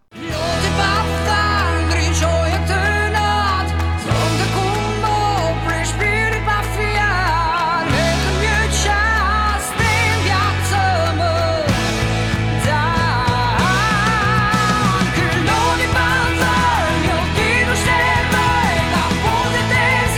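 An Albanian-language pop song plays loudly and continuously, with a heavy sustained bass line, layered synths and a wavering melodic vocal line in Albanian running through the whole stretch.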